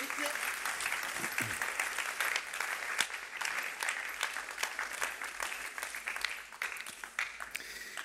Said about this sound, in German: Wow, Halleluja. Gebt ihm ganz, ganz herzlichen Applaus.